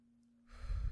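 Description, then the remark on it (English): A single deep breath in through the nose rushes in about halfway through, a soft airy whoosh following near-silence, with no talking. “Keep breathing, breathing in through your nose, out through your mouth.”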